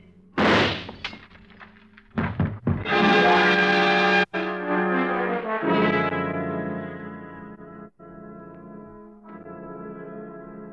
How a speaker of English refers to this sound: He stumbles and falls forward, a strange look on his face. The glass in his hand smashing into fragments on the tabletop by your side as you step back quickly.